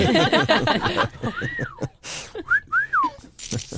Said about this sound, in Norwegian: så er det lov å plystre.